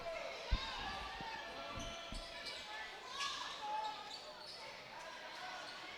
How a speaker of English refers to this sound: And Copeland dribbles the ball, evidently Maston slapped at it a little bit.